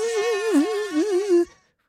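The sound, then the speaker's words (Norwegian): A steady mosquito buzz whines for about a second and a half, its pitch wavering up and down as if the insect is circling, then cuts off abruptly into silence. “Nei, det var lyden Den slutta aldri å si bzzz.”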